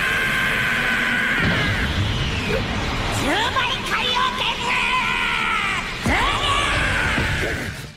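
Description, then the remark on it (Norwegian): High-pitched, Asian-style screaming and yelling voices slowly fade in, making a softer transition to Asia and K-pop chiptune music. The voices have swooping pitch glides over a dense, crowd-like backdrop that stays loud throughout before cutting off at the end. “Så sakte, men sikkert så kommer det noe sånn asiatisk eh, skrikelyd inn fra sida.”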